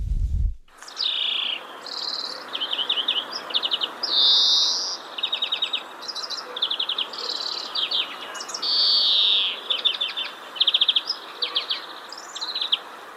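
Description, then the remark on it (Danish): A European greenfinch sings continuously, mixing rapid trills, twittering phrases and buzzy drawn-out notes, clear over a soft background hiss, with no talking. “Og en, som vil trille ud over det hele, mm. er grønirsken.”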